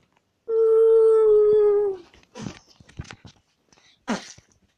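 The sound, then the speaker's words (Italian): A dog lets out one loud, steady howl lasting about a second and a half, dropping slightly in pitch at the end, followed by a few short, scattered noisy bursts. “Il cane di Thanos è stato spiaggiato da un asteroide.”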